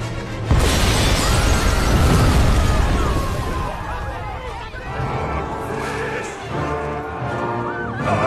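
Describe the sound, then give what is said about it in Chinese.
After a brief hush, a bomb hidden in a cake explodes loud and sudden at the Arc de Triomphe Grand Hotel in a Sherlock Holmes film scene, killing dozens, followed by a deep rolling rumble and crackling, shattering debris that keeps churning for several seconds. “炸弹带走了几十条生命，一场灾难即将席卷欧洲。”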